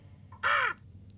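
A single loud crow caw, harsh and nasal, lasting about a third of a second against a quiet background with a faint low hum.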